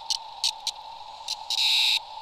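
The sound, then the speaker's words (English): A Cassin's auklet, stuck in the fur of a microphone blimp after landing on it, gives a distressed, insect-like buzzing call: short raspy bursts over a steady electronic hum, then a longer harsh buzz, like a dial-up modem, heard alone at moderate loudness. “the Cassinis would land on the blimp and they'd get stuck in the microphone fur, which is fabulous because then they do this kind of distressed call that sounds like an insect, sort of making a dial up internet sort of electrical sound”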